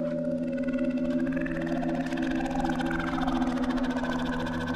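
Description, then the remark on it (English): A voice imitates the croaking rattle of the ghost girl from the horror film The Grudge: one unbroken, steady, buzzing low groan with eerie upper overtones that slowly shift in pitch, held for about five seconds at an even loudness. “a low sort of the sound that the girl makes from the grudge. I was actually terrified of that noise.”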